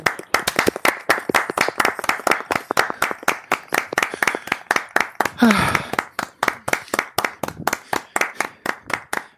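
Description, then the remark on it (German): Steady, quick hand clapping fills the whole stretch, sharp, like a small group applauding in even rhythm, with a short spoken word briefly cutting in partway through. “Ich will Applaus hören.”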